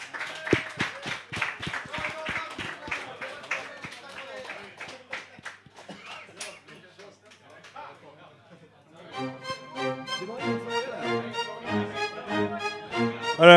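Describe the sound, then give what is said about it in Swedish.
A burst of audience applause at the end of a quiz, dense rapid clapping that thins out and fades over about six seconds, followed after a short lull by an upbeat tonal music jingle. “Stor applåd!”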